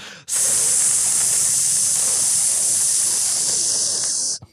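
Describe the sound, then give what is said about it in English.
A voice makes a long, steady, loud hissing sound, imitating air escaping under pressure from a hot car radiator as it is opened, held for about four seconds before cutting off abruptly. “which you may know is the sound of air.”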